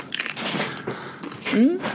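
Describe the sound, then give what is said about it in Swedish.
Wet chewing with soft crunchy bites while someone talks over it, a voice rising briefly near the end. “eh, om, man vill följa, ja, tugg, om, man, om man vill följa dig mer eh, när du inte tuggar, vad gör, hur gör man då?”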